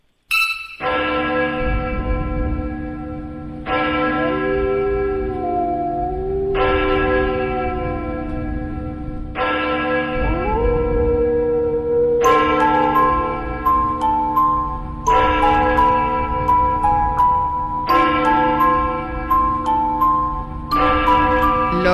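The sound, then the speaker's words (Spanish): Loud, dramatic orchestral and choral music, O Fortuna from Carmina Burana, plays alone, with massive sustained chords that swell in repeated blocks every few seconds, heavy low end underneath and no one talking. “que suena de fondo es Oh Fortuna de Carmina Burana.”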